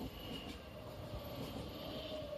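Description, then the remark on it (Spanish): A train rumbles steadily along railway tracks near Sedaví, Valencia, Spain, on a line where nearly 200 trains pass daily, a continuous loud low roar with a faint high-pitched wheel whine running through it, with no voices. “Los vecinos llevan años pidiendo que estos casi 200 trenes que pasan a diario cerca de ambas poblaciones lo hagan por vías soterradas, algo que además de estos accidentes mejoraría el descanso y el sueño de muchos vecinos.”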